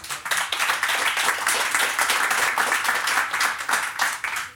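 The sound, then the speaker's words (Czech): A live audience at the Radiokafé on Vyhnoradská třída applauds steadily during a radio interview, a dense wash of many hands clapping at once, sustained and fairly loud throughout with no voices standing out. “nejsme v našem obvyklém studiu, jsme v Radiokafé na Vyhnoradské třídě a je tu s námi živé publikum.”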